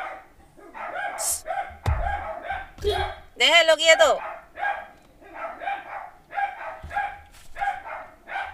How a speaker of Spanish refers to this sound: Ahí viene el gato y los perros histéricos.